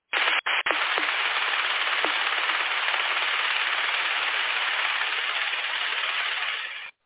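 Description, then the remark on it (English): A rapid, dense rattle like machine-gun fire runs almost nonstop for about seven seconds, stuttering briefly at the start, then holding steady and loud before cutting off. No voices. “the background uh, sounds like a machine gun, and then I hear yep. the the uh, the pings or the the, mm-hmm.”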